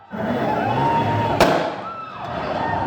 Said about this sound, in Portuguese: Os policiais usaram bombas de efeito moral e deram tiros de bala de borracha.